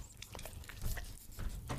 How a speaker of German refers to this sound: Vor allen Dingen das Geräusch, wenn man hört man das Schmatzen. Schmatz mal. Schmatz mal.